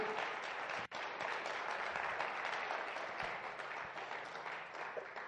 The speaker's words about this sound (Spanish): Dele un aplauso, déselo bien, vale la pena.